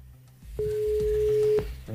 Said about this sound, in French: On appelle maintenant pour en savoir un petit peu plus. S'il vous plaît, cette entreprise qui se trouve dans le 95. Elle se trouve du côté de Goussainville. Voyons si ça répond. C'est parti, on y va. Première sonnerie.